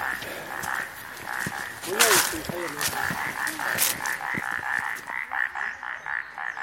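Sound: frog croaking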